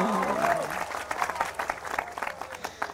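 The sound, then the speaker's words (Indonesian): An audience at a public forum claps steadily for a few seconds, a dense patter of many hands, with a brief voice at the start before the clapping fills in and carries on at a moderate level. “Kalau, kalau Anda tepuk tangan, saya ikut suka. Tepuk tangannya mana dong?”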